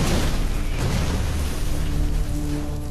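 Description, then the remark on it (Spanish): Heavy, continuous rumbling of artillery shells bursting close by around a soldier's position, deep booms blending into a loud, roaring wash of noise with no voices. “Siguen explotando proyectiles a su alrededor.”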